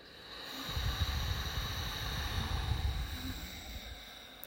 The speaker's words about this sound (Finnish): Eli nenän kautta sisään. Ja pitkä hengitys Tyhjennä sun keuhkot.